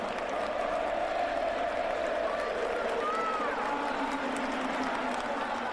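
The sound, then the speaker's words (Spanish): A large stadium crowd of River fans applauds steadily, a dense, continuous wash of clapping and cheering that holds at an even level for several seconds. It is an ovation at the Monumental stadium for a player wearing a Newell's shirt in his last match there. “Con todo lo que viviste, con lo leyenda que sos, que me pongas en el lugar uno el, el, baño de la gente de River aplaudiéndote con la camiseta de Newell,”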